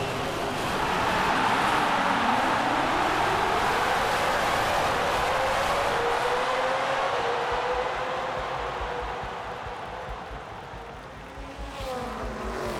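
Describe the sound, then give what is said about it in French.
Loud, continuous engine roar with rising and falling pitch sweeps as 20 racing cars launch at full speed together at the start of a race on a winding circuit, amid applause, a dense mechanical whine filling the scene with no talking. “Les 20 voitures de course s'élancent alors à pleine vitesse sous un tonnerre d'applaudissements et de bruit de moteurs.”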